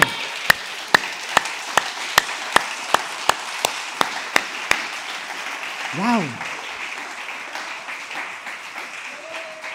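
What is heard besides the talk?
audience applause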